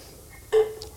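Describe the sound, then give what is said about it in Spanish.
A single quick sip or gulp of water, a brief wet click standing alone against quiet background with no talking. “Mamá, si ves que, estoy tomando algo, eso es agua, ¿eh? Agua.”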